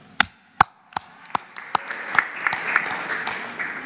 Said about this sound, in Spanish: No, un aplauso.